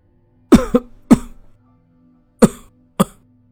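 An old man coughs five times, harsh and rasping: a quick cluster of three, then two more separated coughs after a pause, with no talking.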